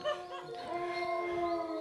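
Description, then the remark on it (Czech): Several wolves howl together by the sea in long, overlapping sustained tones with gently shifting pitch, fairly close and steady in loudness for the whole short stretch, with no talking. “že jsou tam vlci”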